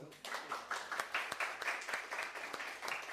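An audience applauds a group of volunteers, a dense wash of many hands clapping steadily at a moderate level for a few seconds, with scattered sharper claps standing out from the crowd noise.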